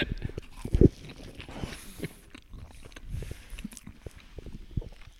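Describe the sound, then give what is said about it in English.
A crisp bite into a flaky butter chicken pie, followed by steady, moist chewing with small crunches and mouth noises, with no talking. “I'll turn the mic up for this one. You can really hear it.”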